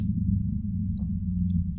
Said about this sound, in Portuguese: assim como o da moto que está a passar, porque hoje deve haver uma espécie de convenção de motares mas eu não fui avisado.